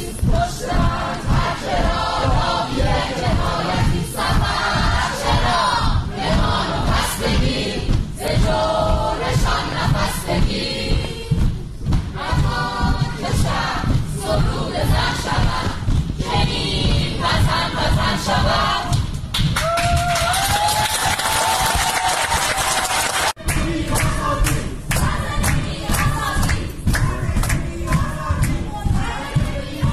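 A large crowd chants protest slogans loudly and rhythmically in unison, with steady pulsing beats that could be stomping or clapping running through the whole stretch.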